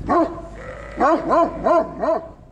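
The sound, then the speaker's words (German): A Pyrenean mountain dog, a livestock guardian dog kept to protect sheep from wolves on a sheep farm in Preschen, barks five times in a loose, uneven series, each deep bark rising and falling in pitch, clear with no voices. “Deswegen hat er sich Pyrenäenberghunde angeschafft. Eine spezielle und sehr teure Rasse von Schutzhunden.”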